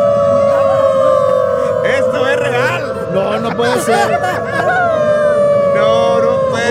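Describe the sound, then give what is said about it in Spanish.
A crowd of people in Germany who want to be identified as dogs howls like dogs outside offices, in long, sustained wavering tones, loud and layered, with voices talking and exclaiming over the howling throughout. “empezaron a aullar como perros.”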